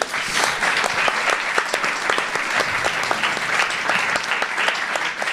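An audience applauds steadily, a dense, continuous patter of many hands clapping at even loudness for several seconds, with no voices rising above it.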